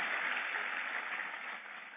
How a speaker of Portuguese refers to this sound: Deus vai te dar a bênção da vitória e da permanência no nome de Jesus. Pode aplaudir o Senhor. Aleluia.